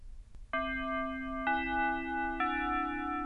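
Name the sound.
chime ringing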